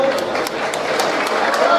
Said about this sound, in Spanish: Muchas gracias por estar aquí. Fuerte el aplauso para este equipo.